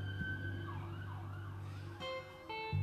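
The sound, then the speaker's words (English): A police car siren in Boston wails in rising and falling sweeps over a steady low engine rumble, then gives way to sharper, steadier tones as it goes by. No one talks. “Oh, we got a cop car.”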